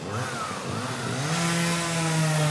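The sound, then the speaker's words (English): A chainsaw cutting tree branches on a street roars close by, its engine pitch climbing steadily as it bites into wood, a loud, continuous buzzing whine with no talking over it. “I think this is officially the first interview I've done next to a chainsaw.”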